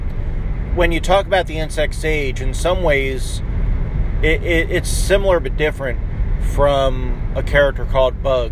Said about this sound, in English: In fact, I'm still on the way to work, and I wanted to give you a call. So sorry about the road noise. And sorry, I'm not going to be able to reference anything while I'm driving.